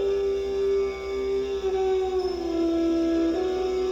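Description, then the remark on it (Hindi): A jackal howls in one long, sustained wail that holds a steady pitch and sags slightly toward the end, loud with no talking over it. “मृग और पक्षियों से सेवित उस सघन कानन में राजा भ्रमण करने लगे मार्ग में कहीं सियार की बोली सुनाई पड़ती थी तो कहीं उल्लुओं की”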